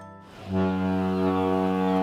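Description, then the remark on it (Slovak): A deep, loud cruise ship horn blares in one sustained blast, starting abruptly and holding a steady, rich low tone with no voices over it. “Tak nastúpte na loď a spoznajte za pár dní Stredomorie alebo Karibik na výletnej lodi”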